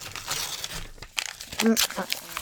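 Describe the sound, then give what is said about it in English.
Crinkly paper being crumpled and chewed in irregular bursts, with rustling crackles throughout and a short muffled vocal sound partway through. “This paper tastes so bad.”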